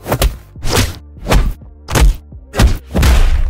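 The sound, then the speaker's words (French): A series of about five or six hard, heavy whacks, film punch sound effects, landing in an uneven rhythm, each a loud thud with a short crunchy tail and no talking. “utilisa pour les films Indiana Jones une batte qu'il a frappée contre un grand baseball ou encore une balle de croquette placée dans une chaussette”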